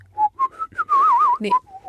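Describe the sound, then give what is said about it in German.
A person whistles a short melody through pursed lips, a few brief notes followed by a longer wavering trill, then two more soft notes, with no talking. “Und jetzt, jetzt die Frage, pfeift man mit dem Ausatmen?”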